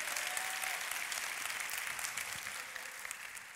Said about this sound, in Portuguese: Ele, a, ele aceitou a Cristo e está trazendo a casa dele toda para cá, amém, irmãos? Dá uma salva de palmas para eles.